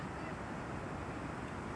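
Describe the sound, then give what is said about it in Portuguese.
Steady wind roars across a microphone on a bench at the edge of the beach, a constant low rumble with a hiss of surf mixed in and no pauses or voices. “Eu hoje tô naquele tal banco do da reflexão que fica na beira da praia, eu acho que vai ser horrível a qualidade porque tá tem muito vento aqui.”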